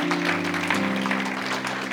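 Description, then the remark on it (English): An audience gives God a hand clap of praise together, a dense, steady wash of hand claps, with sustained low keyboard or organ tones held underneath throughout. “Come on, give God a big hand clap of praise all over the place.”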